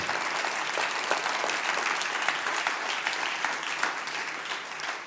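A church audience applauds to honour God, steadily for about five seconds, a dense, even patter of many hands clapping at a constant loud level with no voices standing out.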